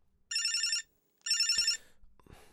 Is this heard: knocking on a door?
no